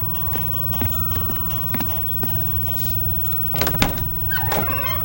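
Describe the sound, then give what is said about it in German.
A door is opened: a few light clicks, then a louder rattle and clack of the latch and handle, over a steady low rumble, with no one speaking. “Geht nicht, ich muss an die Tür.”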